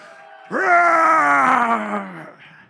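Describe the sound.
An audience roaring like lions when asked by a speaker: one loud, sustained vocal roar lasting under two seconds, rising sharply then sliding lower in pitch before cutting off, with no speech.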